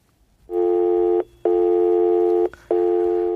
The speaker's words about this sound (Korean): 통화 중이네요. 네, 통화 중 소리입니다.